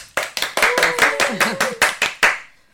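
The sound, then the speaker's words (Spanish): Applause welcoming a Mexican radio expert guest, about ten sharp, evenly spaced claps in a steady rhythm, fairly loud. A faint voice hums or murmurs underneath before the clapping fades out. “Aplausos, por favor.”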